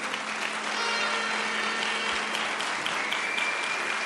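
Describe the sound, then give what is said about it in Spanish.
Sustained applause from a sizable audience, a dense, steady wash of clapping that fills the whole stretch at an even, fairly loud level with no speech over it. “un aplauso para Esmeralda Maya”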